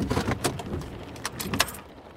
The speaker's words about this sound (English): We park in the visitor lot of a large tan brick building positioned beside a busy road. As traffic steadily passes by, we make our way up to an entrance with double glass doors.